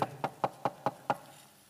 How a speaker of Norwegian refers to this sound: Jesus står og banker på døra di.